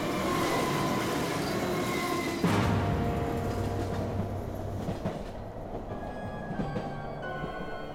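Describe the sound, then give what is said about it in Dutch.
Steady rumble of a train ride on a journey toward the Pyrenees, heard from inside a compartment, with rhythmic clickety-clack of wheels over rail joints and faint metallic squeals, continuous and fairly loud, no voices. “Het is op een van die reizen dat ze in een coupé zitten met een stel Duitse soldaten”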